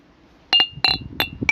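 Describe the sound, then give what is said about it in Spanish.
Glasses clink together in a toast, several bright, ringing taps in quick succession, starting with a quick double clink, each leaving a short high-pitched shimmer over quiet background murmur. “Salud.”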